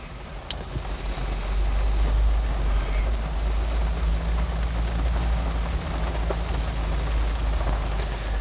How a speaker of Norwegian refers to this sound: Jeg for min del hører ingen lyd. Det eneste jeg hører, er lyden av regnet mot bilruta, men vi tar likevel opp lyd.